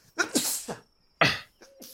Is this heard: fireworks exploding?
no